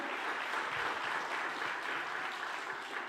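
A crowd claps loudly and steadily, a dense continuous wash of many hands with no single claps standing out, holding at an even level throughout with no voices heard.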